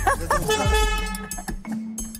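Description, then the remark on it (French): A car's anti-theft alarm system, which arms automatically when the owner leaves the vehicle, sounds on detecting a thief: a steady, buzzy electronic tone that holds for about a second and then shifts to a lower hum, with voices briefly heard at the start. “ça va il y a un truc qui fait bip là. Le voleur a été repéré par le système.”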